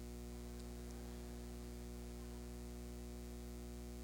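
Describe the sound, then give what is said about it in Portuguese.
A steady air conditioner hum drones without a break, a low, even tone wrapped in soft hissing air noise. It stays quiet and constant the whole time, with no voices. “Oh, amado irmão, palavras como essa fazem-me ouvir, além da voz de Deus, a do ar condicionado.”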